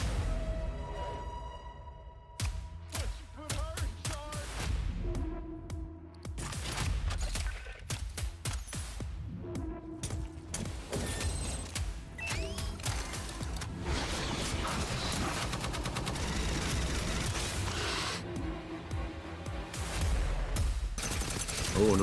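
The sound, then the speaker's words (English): Dense video game gunfire from a gameplay trailer for the Aliens: Fireteam Elite Pathogen DLC, with rapid bursts and sharp shots over rumbling low-end effects, loud and continuous throughout, with occasional whooshes and brief voices mixed underneath. “The gun sounds are so good, dude.”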